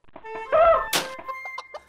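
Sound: hen clucking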